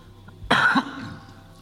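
A single short, harsh cough from a man, close and fairly loud, with a brief rough burst followed by a quick fading tail and quiet background afterward.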